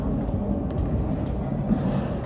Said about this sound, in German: Jetzt wird es gleich nochmal laut, wenn eine U-Bahn reinkommt.